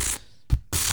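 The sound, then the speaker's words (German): A wooden Easter ratchet rattle is cranked, clattering loudly in dense, rapid bursts, breaking off briefly with a single knock before cranking up again. “Kennt ihr Rappeln?”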